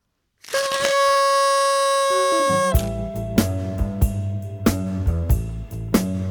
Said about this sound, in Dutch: Het slechtste toetertje ooit.